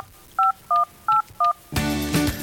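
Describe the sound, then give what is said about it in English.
Four quick, evenly spaced telephone touch-tone beeps, each a clear two-pitch dial tone, followed by a burst of louder, fuller music or program audio cutting in; the tones are a radio call-in cue for listeners to phone the program. “Those touch tones are your cue to give us a call.”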